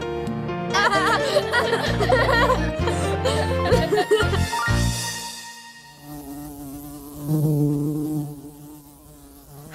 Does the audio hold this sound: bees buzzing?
yes